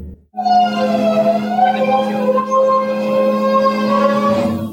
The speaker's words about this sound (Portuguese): Que barulho é esse? É o caminhão de lixo na minha rua.